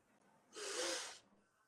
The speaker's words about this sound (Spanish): cerramos los ojos y hacemos dos respiraciones profundas. Inhalando por la nariz y exhalando fuerte por la boca. Vamos a hacer este sonido. Atención, este sonido. Al inhalar